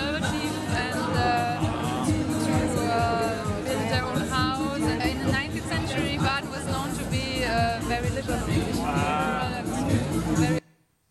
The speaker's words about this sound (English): it actually ended up, we were at a beer festival and we ended up getting a pretty nice crowd there